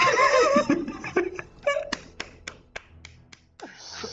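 Laughter at the start gives way to sparse, scattered applause: roughly seven sharp, separate claps at an uneven pace, with no sustained clapping.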